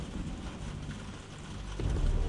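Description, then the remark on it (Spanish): Steady rain hisses across the whole clip on a cold October night in London in 1963, while a deep rumble of thunder swells underneath and grows louder near the end. No voices. “Como siempre, está lloviendo y es una fría noche de octubre.”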